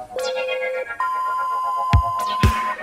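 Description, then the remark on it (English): A synthesizer oscillator holds a steady electronic tone: a short lower pitch first, then a longer, higher sustained note. Two soft thumps land near the end, and no one speaks. “sweater produces a steady pitch sound.”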